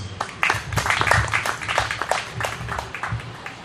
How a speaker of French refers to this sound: je vous en prie, on l'applaudit.